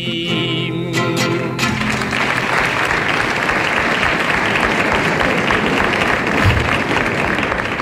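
Sustained applause from an audience for a musician, who performed with a guitar: a dense, steady wash of clapping at even loudness. A held musical chord rings out during the first second or two before the clapping takes over.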